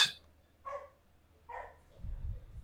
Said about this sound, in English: is that one of your dogs? Yeah, that's Butter. She's downstairs.